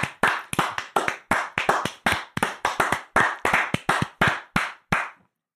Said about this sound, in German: So, dieses, dieses Klatschen war für euch, liebe Hörer, weil ihr Klatschen wahrnehmen könnt äh, und nicht die Rewe-Verkäufer oder Pflegekräfte.